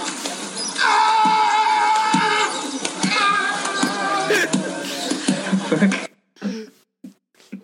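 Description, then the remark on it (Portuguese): A sea lion at a zoo lets out a loud, drawn-out scream that sounds eerily like a shouting man, followed by several more strained bellows before it cuts off to a few quieter scattered noises. “Pronto, para quem não sabe, não conseguem ver o vídeo, isto foi basicamente uma, um leão marinho uh, a gritar como um homem num zoo.”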